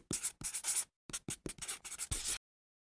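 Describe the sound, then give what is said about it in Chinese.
A pen scratches out a signature at a hotel check-in registration in a quick series of short, raspy strokes, some brief pauses between them, then stops. No one speaks. “请您在这签名。”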